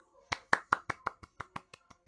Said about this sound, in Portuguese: É, só temos nós dois aqui de produção, então. Ajuda a bater palma aí.